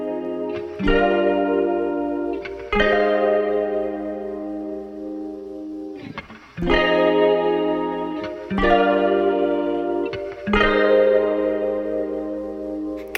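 A jazzy instrumental passage with a horn-like lead: loud, sustained chords struck roughly every two seconds over a steady low bass, with a reverberant, slightly effected tone and no singing.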